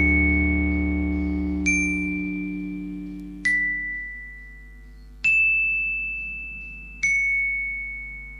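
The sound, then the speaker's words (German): Four bright xylophone notes are struck one at a time, evenly spaced, each ringing out and slowly fading over a soft low tone that dies away beneath them, at the end of a song. “Ich wusste jetzt am Ende nicht, wie lange wird äh, das, wie heißt es? Xylophon ausklingen.”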